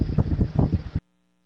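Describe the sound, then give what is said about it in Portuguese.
Electric fan air buffeting a microphone as someone comes in front of the fan: loud rumbling gusts that throb unevenly for about a second, then cut off abruptly into silence. “chegou no, da frente do ventilador.”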